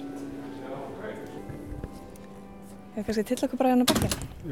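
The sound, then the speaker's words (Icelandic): A door opens near the end with a few clunks and a short scrape as the speakers move outside, while people talk quietly over a low background hum. “Út fyrir, út fyrir dyr.”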